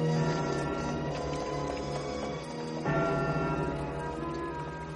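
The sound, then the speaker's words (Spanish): Bells ring out loudly in London after the king's death, with rich, lingering overtones, the resonant tones overlapping continuously, and a fresh strike lands about halfway through, renewing the ringing. No one speaks. “Al oír las campanas, el príncipe se asomó a la ventana y le preguntó a un transeúnte que pasaba por allí.”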